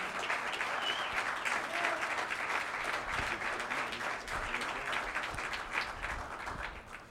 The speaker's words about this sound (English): Let's give the Lord a big hand